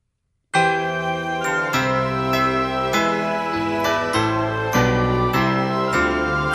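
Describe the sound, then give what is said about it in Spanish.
Bright, ringing jingle bell tones play a festive Christmas melody, each note struck in steady succession and left to shimmer. Loud, with no voices over it. “Sonidos de Navidad, tiempo de amor, unión y confraternidad.”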